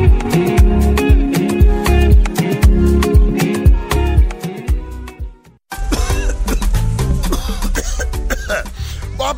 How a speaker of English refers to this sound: hey eh, conductor this cough is serious abeg you need to go to the hospital. hospital ah god bless you aunty i have told this my conductor the cough has refused to go